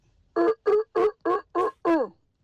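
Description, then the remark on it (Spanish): A person imitates a seal as sound number one in a guess-the-animal contest, with six short, loud, evenly spaced barking honks, the last one drawn out and sliding downward, with nothing else around them. “Es la foca, es la foca.”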